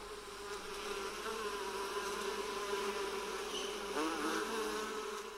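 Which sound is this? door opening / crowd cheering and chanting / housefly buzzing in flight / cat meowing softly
housefly buzzing in flight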